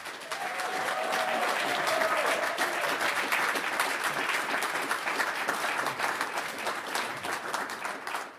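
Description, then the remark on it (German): Sustained audience applause welcoming Fatih Akin, a dense steady wash of many hands clapping at even loudness for about eight seconds, tapering slightly at the end, with faint crowd murmur underneath. “Begrüßt mit mir den großartigen Fatih Akin.”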